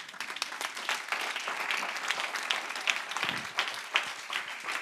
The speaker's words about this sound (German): Oh, was eine Ehre. Könnt ihr ihr mal einen riesen Applaus geben?